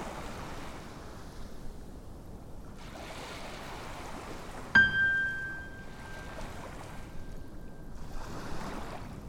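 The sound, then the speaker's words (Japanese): Ocean waves wash onto a beach in slow, rolling surges for a seaside imagery mindfulness meditation, with one clear metallic chime struck midway, rung periodically as a cue, that rings on and fades over the surf. No one speaks. “海辺のイメージ瞑想”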